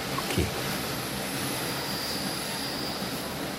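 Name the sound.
S-Bahn commuter train riding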